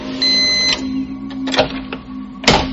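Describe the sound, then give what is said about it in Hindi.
A printer runs steadily, printing out blank pages, with a mechanical whir and hum, broken by sharp clicks and feed clunks as pages pass through, with no one speaking. “यह आवाज प्रिंटर के पास से आ रही थी पल्लवी जब प्रिंटर के पास गई तो उसने देखा प्रिंटर से ब्लैंक प्रिंट्स निकल रहे थे”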